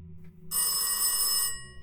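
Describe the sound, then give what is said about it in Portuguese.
A single loud burst of a telephone bell ringing, a bright metallic trill lasting about a second before cutting off, with no voices and only a low background hum. “E naquela mesma noite, à meia-noite 40, um homem ligou de um telefone público para a delegacia de Valejo.”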